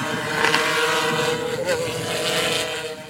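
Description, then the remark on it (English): A drone's propellers buzz in a steady whine as it flies in GPS mode, the pitch wavering briefly partway through as it brakes to hold position and changes direction on the pilot's stick input, with a breezy hiss underneath. “You can see that the aircraft is going to go in that direction.”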